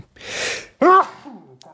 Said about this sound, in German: Jawohl, Gesundheit.